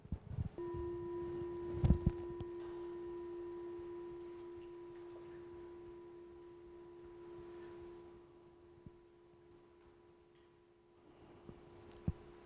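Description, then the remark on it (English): A meditation gong is struck once at a retreat, leading into meditation, and rings with a steady, pure humming tone that lingers for many seconds, slowly fading while a few faint knocks sound in the quiet background. “what we ask the children to do is, as you, as you lead into uh, the meditation, listen to the sound of the gong.”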